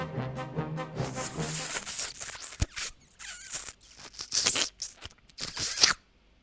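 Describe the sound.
A voice mimics how a tongue sounds when eating a lemon: a short nasal, humming vocal sound, then a run of wet mouth smacks, clicks and sucking noises in irregular bursts.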